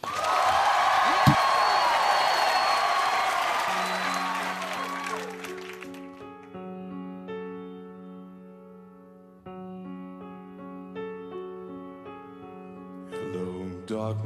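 A live studio audience on Conan O'Brien's show applauds and cheers loudly for several seconds, then the clapping fades as a sustained live musical performance by a singer begins, with steady tones and singing carrying through to the end.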